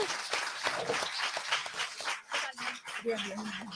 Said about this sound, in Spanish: El aplauso, tiene que ser, doble porque vienen de trabajar.